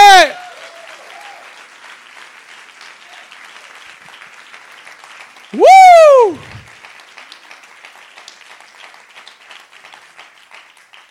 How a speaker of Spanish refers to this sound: Dale un aplauso fuerte.